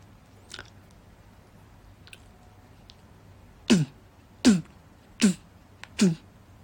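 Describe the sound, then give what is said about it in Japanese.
Four evenly spaced, punchy beatboxed kick-drum hits made with the mouth, each a low thump with a short burst of breath, preceded by a few faint clicks and quiet background noise. “バスドラムの音で意外とね、難しいのにはね、種類出せないし、そんなに。”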